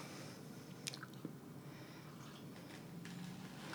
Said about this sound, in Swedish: Ursäkta, jag var tvungen att svälja gröt och eh, kaffe. De tycker kanske lite vanvördiga som äter och läser Bibeln, men vi äter ju